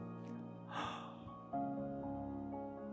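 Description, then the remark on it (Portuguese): A person yawns: a breathy intake swells, then a drawn-out voiced groan that slowly trails off, with no talking around it. “E aí, no momento que vier esses pensamentos, você começa assim: boceja.”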